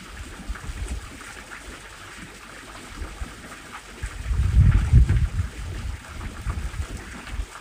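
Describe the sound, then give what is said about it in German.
Wind blows steadily outdoors with a broad rushing hiss, gusting stronger with low rumbling buffets midway through before settling back to a softer, continuous whoosh. “Wenn du mit deinen Gedanken abdriftest, dann lass dich von dem Wind, den du hier während der Meditation in der Aufnahme hörst, immer wieder daran erinnern, zu deinem Atem zurückzukehren.”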